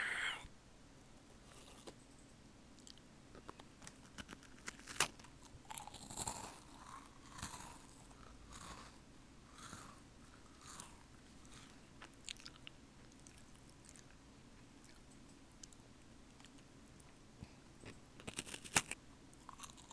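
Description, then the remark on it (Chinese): Someone bites into and chews peacock cookies, producing a steady stream of crisp, irregular crunches with a few sharper bites standing out, fairly quiet and with no talking. “今天要吃的是孔雀饼干。”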